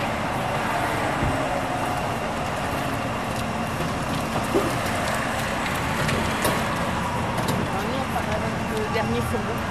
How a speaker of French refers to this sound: On amène les caisses qui vont être livrées en chariot élévateur. Voilà, c'est ce qu'il y a de plus simple. Jusqu'au camion.